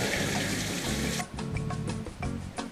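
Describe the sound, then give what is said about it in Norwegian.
Water at 37 degrees runs steadily from a tap with a dense hiss. About halfway through, the flow changes to a duller splashing with clattery knocks, as if something is held under the stream. “Jævla vann Vanskelig å holde benderen og holde under vann samtidig.”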